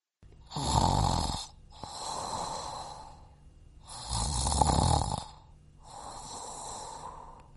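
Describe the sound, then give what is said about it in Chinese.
Four slow snores, said to come from a refrigerator in the kitchen, alternate loud and soft, each a drawn-out rasping inhale followed by a gentler breathy exhale, in a steady sleeping rhythm with no talking. “咦，呼噜声好像变小了一点哦，难道是？”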